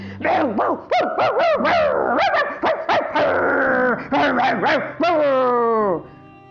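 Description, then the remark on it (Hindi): Several street dogs bark loudly and continuously as they chase after someone through city streets at night, an overlapping flurry of sharp barks mixed with higher yelps and whining cries that runs for several seconds before trailing off. “अचानक सड़क के कुछ कुत्तों की नजर उस पर पड़ी और वो जोर जोर से भौंकते हुए उसके पीछे दौड़ने लगे”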